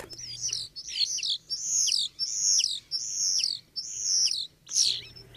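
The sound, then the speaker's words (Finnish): A common starling sings in a run of about seven bright, whistled and warbling phrases, each repeated in quick rhythm with short gaps, fairly loud against a faint low hum. “Viikon luontoääni: Kottarainen”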